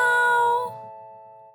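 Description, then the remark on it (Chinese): A cat meows in a bright, high, harmonic-rich tone that holds for a moment, then trails off into a fading, ringing tail. No one speaks. “喵喵喵喵！”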